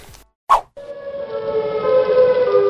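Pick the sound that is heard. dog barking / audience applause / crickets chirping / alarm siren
alarm siren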